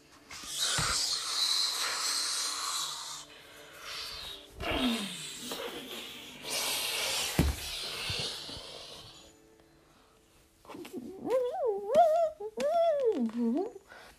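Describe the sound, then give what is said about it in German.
A suction whoosh pulls the character Edna through a hose and through the whole institution: two long, loud bursts of rushing hiss with a short gap between, then a wobbling, rising-and-falling tone near the end. “Edna wird durch die ganze Anstalt gesaugt.”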